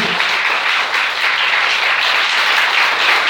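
An audience applauds the Lord steadily at night, a dense, continuous wash of many hands clapping together, loud and sustained for the whole stretch with no talking.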